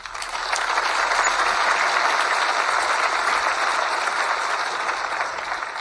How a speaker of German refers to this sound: Also großen Applaus.